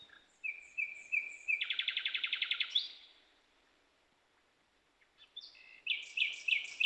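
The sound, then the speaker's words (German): A songbird sings at night, around 23:45, recorded while cycling home, in clear bursts: repeated high chirps, then a fast rattling trill, a pause of near silence, and another run of bright whistled notes. No voices. “Ja, du, das ist ja die Lichtverschmutzung, die wissen auch nicht mehr, wann Nacht und Tag ist.”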